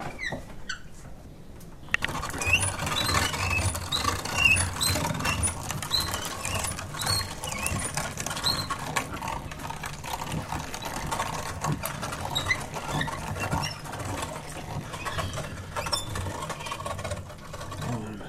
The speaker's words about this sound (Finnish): lihamyllyn ääni tällä.